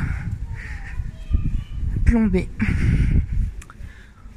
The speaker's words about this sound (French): Oh, il y a beaucoup de vent là.